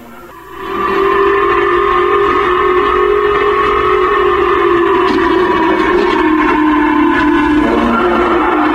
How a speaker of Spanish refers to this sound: Y es que tras esta activación de sirenas antiaéreas en Japón, Protección Civil de aquel país llamó a sus habitantes a refugiarse en algún sótano, edificio o edificio. Escuchemos parte de lo que se emitió.